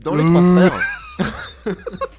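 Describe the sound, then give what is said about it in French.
A voice lets out a loud, drawn-out nasal bellow imitating a moose call, lasting under a second, then someone briefly speaks. “C'était le bruit d'un élan, j'imagine.”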